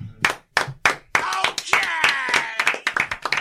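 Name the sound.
people clapping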